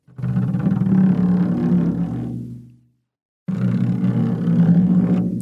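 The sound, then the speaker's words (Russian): A wet finger rubbed across the membrane of a drum turned membrane-up produces two long, loud groaning moans separated by a short silence, imitating a whale call. The first moan fades out gradually. “обязательно нужно палец смочить и проводить по мембране.”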